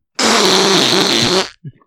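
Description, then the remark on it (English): A single loud, buzzy fake fart noise lasting just over a second, alone, followed by a brief faint sputter. “That was a fake fart because I couldn't summon up a real one to express my disgust.”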